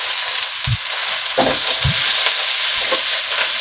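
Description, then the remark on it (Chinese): Steady, loud sizzling of vegetables stir-frying in a wok for a noodle dish, broken by four soft scraping thumps of a spatula tossing the contents at an uneven pace. No one speaks. “好，就让它继续煸炒啊。”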